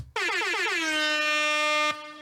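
sound effect, air horn blast

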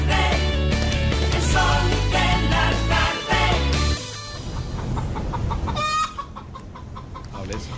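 sound effect, hen clucking sound effect

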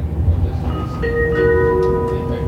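vehicle, train riding on rails

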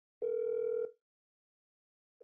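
signal or alarm, outgoing phone call ringing

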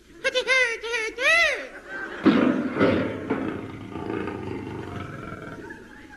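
animal, tiger roaring

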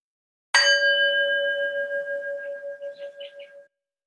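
signal or alarm, bell ringing

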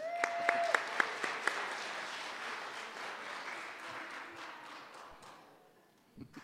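crowd, audience applause

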